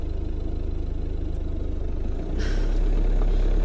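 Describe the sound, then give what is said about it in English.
A car engine hums steadily in a low rumble, then swells louder about two-thirds through as the vehicle accelerates, with a brief burst of higher noise. “They're driving away! Quick! Quick!”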